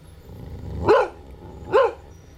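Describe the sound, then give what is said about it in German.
A dog begging to drink a man's beer gives two short, whiny barks about a second apart, fairly loud, with a pleading, begging quality over a quiet low background rumble. “Der Hund will auch und bettelt, bis ihn der Mann labbern lässt.”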